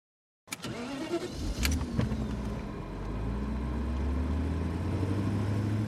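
An SUV engine cranks and catches with a few sharp bursts, then settles into a steady low rumble that builds gently as the vehicle pulls away. No voices.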